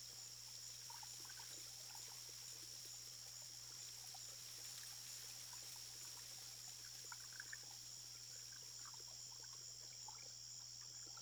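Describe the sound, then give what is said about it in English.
Soft, continuous trickling of irrigation canal water, faint and steady with small scattered burbles, set against a constant high-pitched drone and a low background hum; no voices, no traffic or other human activity. “Just the gentle trickling of the irrigation canals and the chirping of crickets in the distance.”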